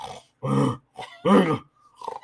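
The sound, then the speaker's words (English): A voice imitates a roommate's loud, bear-like snoring: a few rough, guttural rasping bursts separated by short pauses, harsh, with no ordinary speech. “And he was snoring up like a fucking bear.”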